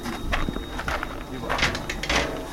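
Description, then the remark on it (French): A heavy guillotine door on a livestock pen slides open to load animals into a livestock trailer, with a series of rattling metallic scrapes and bumps, over a steady background rumble. “ça c'est la porte guillotine où on ouvre, on charge dans la bétaillère et ça part à la bête.”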